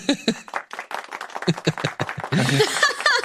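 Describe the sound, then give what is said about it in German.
Scattered, uneven hand claps quickly swell into a dense burst of applause that fills the last second, with some voices mixed faintly underneath. “Dafür gibt's Applaus jetzt.”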